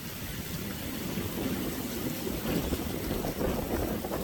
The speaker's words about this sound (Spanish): Nos manda también un video este, con lluvias bastante intensas. Ahí lo estamos viendo, Rodrigo. Mira lo que es eso. Lluvia con viento.